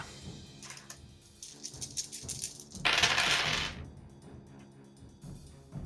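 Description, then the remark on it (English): Six dice clatter and tumble across a hard surface, a burst of rattling clicks with one louder, dense scrape in the middle, with no talking; they land showing two fours, three twos and a six. “I rolled six dice and I rolled two fours, three twos, and a six”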